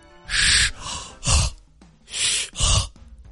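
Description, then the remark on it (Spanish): The Age of Empires 4 video game sound effect that plays when villagers finish building something: four rasping, breathy bursts of noise in an uneven rhythm, with soft low thumps beneath, fairly loud, with no talking. “Ese sonido era el que cuando terminaban los aldeanos de construir algo sonaba.”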